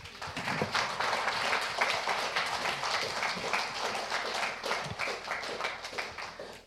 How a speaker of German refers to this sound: Einen herzlichen Applaus.